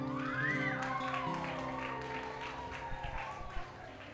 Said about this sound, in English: All right, who um who has felt God's presence here at camp already? Just yell, wave your hands, clap, whatever you want to do.